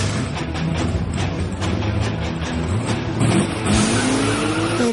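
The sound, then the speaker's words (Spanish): A powerful sports car engine roars loudly and continuously in a forest, its pitch climbing as it approaches at high speed, with a brief tire-squeal edge near the end. No voices. “el motor de un auto deportivo que se acercaba a mí a gran velocidad.”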